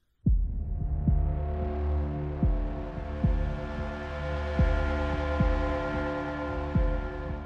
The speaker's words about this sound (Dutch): Je hoort zo meteen een openingsmuziekje